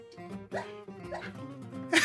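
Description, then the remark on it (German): A sleeping dog whimpers while dreaming, a run of soft, high, whiny little yelps, fairly quiet, ending in a short breathy huff. “Mein Hund, der träumt.”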